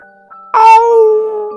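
A wolf lets out one loud, sustained howl that starts abruptly and holds a steady, mid-high pitch before slowly easing off, with no talking around it.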